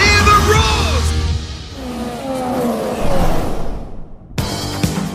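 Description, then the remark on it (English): A loud crowd roars at the British Grand Prix motor race while engines whine and sweep past in rising and falling pitches; the din cuts out briefly near the end, then bursts back. “hear the roars.”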